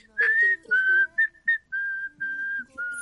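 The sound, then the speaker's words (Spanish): Someone whistles a short melody, a series of clear, sustained notes at shifting pitches separated by brief pauses, with no talking. “Sí, que, pero imagínate, estamos en un ascensor y uno está ahí piola y tú que sabes silbar, ponte a silbar.”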